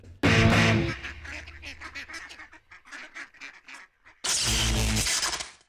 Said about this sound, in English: Quack, quack.